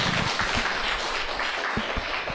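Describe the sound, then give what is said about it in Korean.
An audience at a book launch claps steadily to welcome lecturer Park No-ja, a dense, even wash of many hands that holds at a constant level throughout, with a few low thumps mixed in and no voices. “그러면 큰 박수로 박노자 선생님 모시고 강연 듣도록 하겠습니다.”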